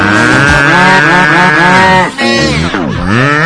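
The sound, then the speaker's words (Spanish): A loud, drawn-out cow moo with a rich, buzzy tone, sliding in pitch and breaking into a couple of shorter falling moos at the end. No one speaks over it. “La vaca trivi, la vaca trivi, tiene cabeza y huele a Y hace...”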